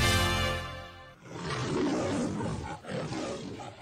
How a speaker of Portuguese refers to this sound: É não foi o leão que invadiu o estúdio, eu prometo.